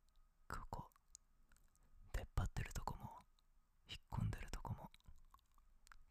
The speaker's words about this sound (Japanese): 舌の広い面で優しく舐めても いい反応くれるけど舌先でなぞられたりうん強くされるのも好きだよな